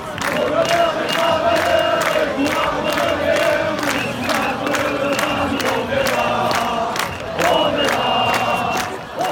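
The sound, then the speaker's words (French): A crowd of Gilets jaunes (yellow vest) protesters chants "on est là" in unison, a loud, rhythmic chorus of many voices repeating the phrase steadily, with sharp accents and claps punctuating the beat. “quand les Gilets jaunes ont, repris la chanson … pour compter. non, on est là, non, on est là”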